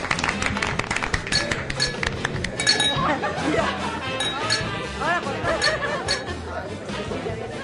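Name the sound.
glasses clinking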